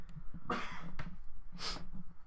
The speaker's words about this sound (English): I'm going to cough now, excuse me